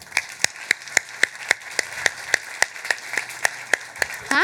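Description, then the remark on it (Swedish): An audience at Marstrand claps in steady unison to welcome guest Kyle Langford, sharp evenly spaced claps about four per second over a dense crowd hum, ending with a brief rising tone. “En stor applåd för Kyle Langford.”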